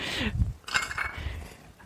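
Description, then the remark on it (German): Small bowls, prepared for a small hummus buffet, and cutlery clink together in a quick, irregular series of bright, ringing taps, with a soft low rumble of handling underneath. “Oh, hast auch noch so schöne Schälchen dafür vorbereitet.”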